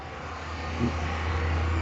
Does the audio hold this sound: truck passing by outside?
yes